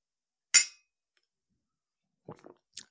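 A single bright clink of glasses touching in a toast, ringing briefly before fading, followed after a pause by a few faint knocks and a soft, light tap.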